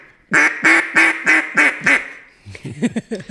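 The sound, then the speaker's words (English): A Sure-Shot duck call blown to imitate hen quacks: six loud, evenly spaced nasal quacks in a steady falling cadence, followed by a person starting to speak. “I was using my sure shot”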